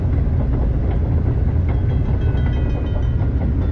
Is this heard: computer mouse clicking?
no